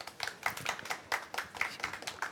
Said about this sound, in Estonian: aplaus.